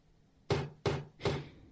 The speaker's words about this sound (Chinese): 敲门声音又响起。